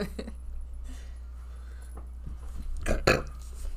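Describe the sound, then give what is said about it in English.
A single loud burp rumbles out near the end, preceded by a few faint mouth noises and breaths against a steady low hum. “And then I burped once.”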